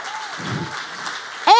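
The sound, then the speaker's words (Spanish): An audience applauds in a steady, dense wash of clapping for over a second, moderately loud, before a voice cuts in at the very end. “Si usted, si usted le va a dar un aplauso,”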